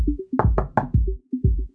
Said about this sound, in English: Inspector Nine knocks on the hatch with his umbrella.